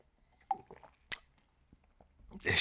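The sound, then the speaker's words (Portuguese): Someone drinks water: a few quiet wet sips and swallowing clicks spaced over a couple of seconds, ending in a louder breathy exhale. “Não estou porque é água, não é, não é medronho.”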